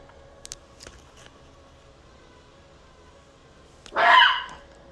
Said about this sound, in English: Hold on, that's my puppy. I'm sorry, y'all.